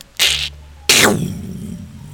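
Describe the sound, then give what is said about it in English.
A brief hissing burst, then a loud crack of thunder, with lightning off in the distance, that rolls away into a low, lingering rumble. No voices. “more thunder, more lightning off in the distance.”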